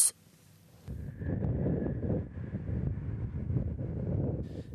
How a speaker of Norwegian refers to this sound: Vinden tar tak i mastene på seilbåtene som ligger til kai. Vi er ved en av kanalene i bydelen Iborg i Amsterdam.